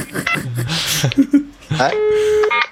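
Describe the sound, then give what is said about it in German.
A telephone gives a few short electronic beeps as it is set to mute, ending in one sustained, steady tone, clear, with a voice briefly audible around them. “Also Telefon stelle ich jetzt mal auf stumm.”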